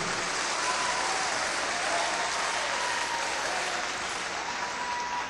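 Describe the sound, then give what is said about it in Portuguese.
Steady, sustained applause from a crowd for the exorcist priest from Florianópolis, a dense wash of clapping that stays loud and even for the whole stretch without any talking over it. “Então, esse padre aqui, pode aplaudir.”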